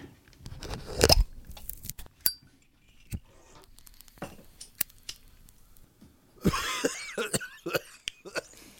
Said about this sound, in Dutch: Ja, de kroon is al aan het kijken van wie is daar aan het hoesten zonder dat iemand.